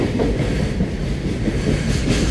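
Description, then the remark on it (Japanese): A long freight train hauled by the EH500-29 'Kintaro' electric locomotive rolls past, a steady loud rumble with rattling wagon noise running unbroken through the whole stretch, no voices. “EH500 の29金太郎です金太郎が長い貨物を引っ張ってやってまいりました”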